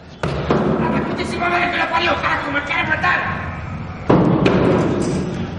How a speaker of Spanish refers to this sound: Entra con precaución. Patea una puerta cerrada.